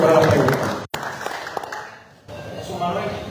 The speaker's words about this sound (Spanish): Así que gracias a ese equipo de la Comisión Estatal de Elecciones por un gran trabajo siempre, un aplauso para ellos y ellos que son los que están nuestros votos y siempre están ahí.